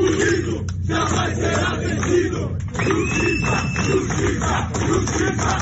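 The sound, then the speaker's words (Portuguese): A large crowd of fighters, colleagues and friends of a world champion chants "Justiça" and shouts in a dense, continuous roar, with rhythmic voiced surges and a brief high whistle-like tone midway, protesting outside the Ipiranga police station in São Paulo's south zone, awaiting the military policeman accused of the death. “No final da tarde e início da noite de domingo, lutadores, colegas e amigos do campeão mundial realizaram um protesto em frente à delegacia do Ipiranga, na zona sul da capital paulista, aguardando a chegada do PM acusado pela morte.”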